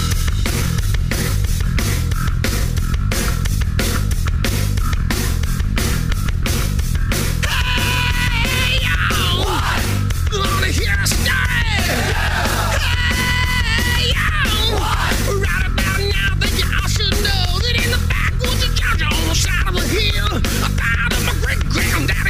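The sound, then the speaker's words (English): A rock and roll band song plays loud, with a steady pounding drum beat and dense, gritty guitars, and a shouted, harmonised vocal line coming in partway through. “this man shot out of the cannon rock and roll band.”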